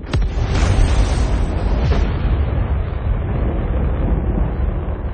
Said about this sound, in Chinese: 三 G，亨特号，启动核聚变发动机，前往目标行星。